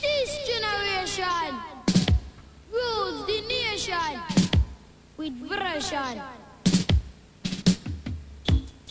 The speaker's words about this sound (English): This is by …, ….